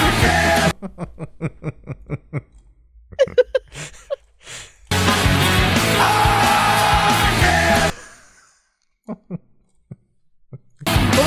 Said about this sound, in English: Let's hear the scream again. now let's listen to the scream at uh, 25 half speed, or you want to do 0.25 speed? Half speed. All right, we'll start with half speed. Here comes the scream.